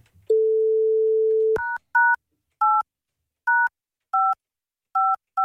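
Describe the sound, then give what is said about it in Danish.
A steady dial tone hums for about a second, then gives way to a series of about seven crisp touch-tone beeps as a phone number is keyed in at an uneven pace, calling a woman who has just landed in London. “nu prøver jeg at søge, om ikke man kan søge hende.”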